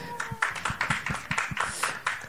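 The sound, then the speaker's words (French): An audience applauds a guest invited to come up and join, a dense patter of many overlapping hand claps at moderate loudness, steady and irregular throughout the couple of seconds, with no voices over it. “On peut applaudir aussi.”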